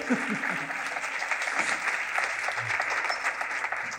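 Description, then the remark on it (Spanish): Dense, steady audience applause at the final event of the Hey Festival, a conversation with Isabel Coixet: many hands clapping at once in a continuous crackling roar that holds at an even loudness for the full four seconds. “Un aplauso.”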